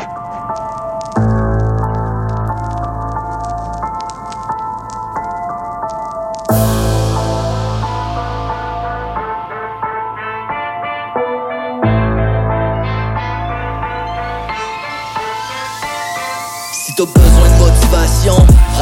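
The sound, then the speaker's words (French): A hip hop track plays loud, with a heavy booming bass line and a repeating melodic loop in steady sections, building to a sweeping rise near the end. No one talks over it. “Fait qu'on va entendre ça maintenant à Hip Hop Urbain”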